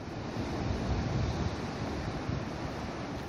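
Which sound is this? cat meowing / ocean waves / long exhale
ocean waves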